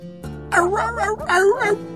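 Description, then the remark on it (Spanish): A human voice imitates dogs barking and howling in kennel cages along a long concrete corridor, giving two drawn-out, rising and falling yelps over a faint steady background hum; the dogs, large and small, jump against the cage mesh. “pasillo de cemento, frente a jaulas con todo tipo de perros, grandes y chicos, gordos y flacos, algunos escondidos en un rincón, pero la mayoría ¡au! ¡au! aullando y brincando contra la malla de la jaula, mientras pasábamos como tratando de decir”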